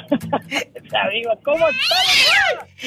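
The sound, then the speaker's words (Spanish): A cat meows several times in quick succession, rising to a loud, drawn-out, wavering yowl near the end, with a voice speaking briefly in the background. “agárrame el gato y juega con él.”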